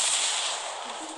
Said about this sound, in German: Gut, ich schieß. Schuss.